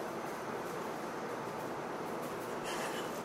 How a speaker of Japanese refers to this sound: うわ音がやばいめっちゃめっちゃチリチリ夜 花火みたいな音がしだした